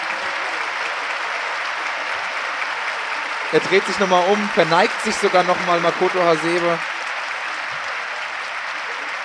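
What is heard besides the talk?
stadium applause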